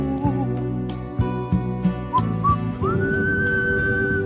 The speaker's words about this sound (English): That's because I'm blowing. I gotta learn to suck whistle.